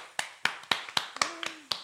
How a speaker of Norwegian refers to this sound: Hjertelig velkommen til Tusen dagens podkast. En liten applaus